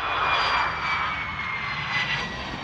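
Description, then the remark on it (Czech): A steady, loud airplane engine drone with a broad whooshing roar and a faint high whine, continuous and even throughout. “A nebo že by zážitky z dovolené, na kterou jsme cestovali letadlem,”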